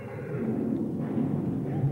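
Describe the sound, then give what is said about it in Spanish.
A horse-drawn carriage arrives and breaks down, its wheels and hooves blending into a steady, dense rumble and clatter that stays loud and even for the whole stretch. “Coche de caballos.”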